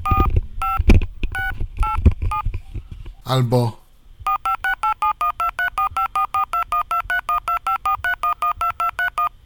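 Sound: DTMF telephone dialing tones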